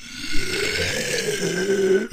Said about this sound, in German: Ich muss kurz aufstoßen.